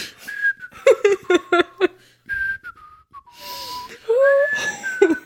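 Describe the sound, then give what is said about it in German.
A person whistles a short, breezy tune in a casual, innocent manner, with clear wavering tones and a few quick breathy bursts, moderately loud, with no talking. “Ich stelle mir ja vor, dass da dabei noch so ganz auffällig, unauffällig, unschuldig gepfiffen hat, so.”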